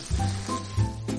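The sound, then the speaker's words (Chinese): A watering can pours water onto wilted flowers in the evening in a steady, continuous hissing splash that holds for just over a second, with a faint low rumble beneath and no voices. “这两天忘记给我的小花浇水，晚上的时候我看到小花都蔫儿了，赶紧拿盆水壶给小花喝水。”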